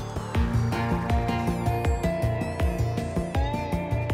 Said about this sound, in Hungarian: Én ezt a részét, ezt a vintage drive ezt nem nagyon favorizáltam, mert ezt csinálja, amit hallod.